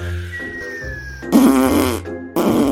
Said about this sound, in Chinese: 谁啦？ 啊，好吵哦！ 可恶啊！ 动物们都受不了河马大声的屁。